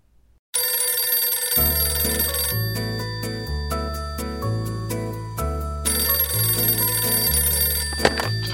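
A telephone rings as a sound effect, added as a fun effect in the song's arrangement, at the opening of an upbeat song, its bright electronic trill layered over a steady bass line and drum beat, loud and continuous.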